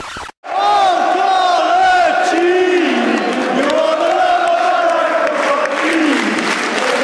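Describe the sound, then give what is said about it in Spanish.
A large crowd of Newcastle football fans sings a terrace chant about the player Colocini, a loud, continuous melodic song with many voices rising and falling in unison, crowd noise filling the background throughout. “Lo nombramos ya a Colocini y a sus transferencias, pero hay que decir que en el lugar donde más se asentó fue justamente en Newcastle, donde se convirtió en ídolo e incluso le hicieron esta canción.”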